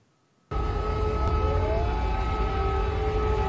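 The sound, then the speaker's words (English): Air raid sirens going off in Kyiv (Kiev) wail in a steady, sustained drone, their tones holding and slowly shifting pitch, loud and continuous after an abrupt start, with a low rumble beneath. “So this, this is air raids. The air raids, the sirens going off from Kiev.”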